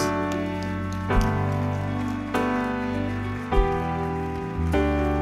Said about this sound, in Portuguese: Amém. Aplauda Jesus.